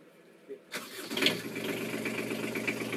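A boat engine cranks briefly and then catches, settling into a steady, rumbling idle close by that carries on to the end.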